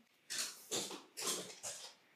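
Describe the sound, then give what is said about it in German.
A dog runs up and down stairs: four muffled, scrabbling thumps in a steady rhythm, fairly quiet, with no talking. “Aber weißt du was, hier ist gerade echt ah, der Hund rennt da und die Treppe hoch und runter”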